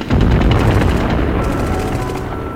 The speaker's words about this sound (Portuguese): Uma das ondas de ataque tentou flanquear a posição norte-americana, mas foi barrada por disparos de artilharia e por mais disparos de metralhadoras.